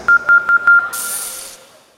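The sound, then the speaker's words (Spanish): A quick run of four short electronic beeps on a steady tone, each with a sharp click, followed by a brief high-pitched hiss that fades out: an android beeping as it says goodbye with a formal, military-style salute. “El androide se despidió con un saludo formal y muy militarizado acompañado de unos pitidos particulares.”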